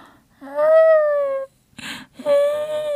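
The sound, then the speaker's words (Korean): A voice imitates a pet cat crying from outside: two drawn-out, wavering meowing wails separated by a short breathy sound, fairly loud with no other talk. “이렇게 우는 소리가 들리는 거예요.”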